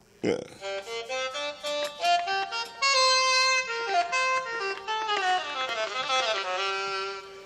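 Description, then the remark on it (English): An aerophone digital wind instrument plays a lively, brassy melody of quick, distinct notes with some longer held tones, loud, following a short breathy burst at the start, with no talking. “Uh, it's called an aerophone.”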